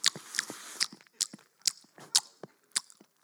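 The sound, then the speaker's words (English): Someone imitates loud open-mouth chewing with their voice: about ten wet, smacking bursts in a steady, slightly uneven rhythm, fairly loud, with no speech. “it's actually culturally acceptable to be a loud chewer.”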